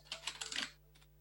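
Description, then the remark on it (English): A quick burst of computer keyboard typing as the word urgent is typed into a message subject line, several rapid key clicks followed by a couple of slower, softer taps, fairly quiet with no one talking. “so that's why i'm typing urgent and in the subject”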